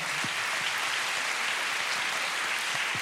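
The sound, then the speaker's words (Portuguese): Sustained applause from a crowd at the Maria Matos venue, a dense wash of many hands clapping steadily at a fairly even level for the whole stretch, with no voices breaking through. “Uma grande salva de é palmas à sala.”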